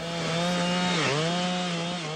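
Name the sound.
chainsaw running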